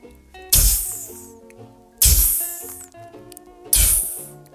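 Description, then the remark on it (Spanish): Three loud, sudden sputtering bursts made by a voice imitating a man who spits such bursts at people walking past him, each a sharp hissy explosion fading out, spaced about a second and a half apart over a musical background. “¿Que y te pega unas explosiones así? Y es como que yo cuando pasáis por el lado, decís como, oh, el weón me escupió, weón.”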